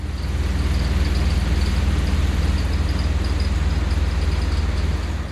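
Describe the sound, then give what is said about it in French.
A continuous underwater recording of an offshore oil platform: a deep, steady mechanical drone with a rumbling low end and a faint high whine, unbroken and loud throughout, with no voices. “Comment ça Vous n'avez pas reconnu une plateforme pétrolière offshore”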